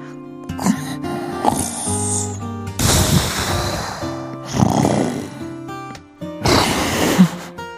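Loud, rasping snores from a man asleep in a movie theater during a film repeat at a slow rhythm, two shorter snorts followed by three long, heavy ones, over a quiet background music bed.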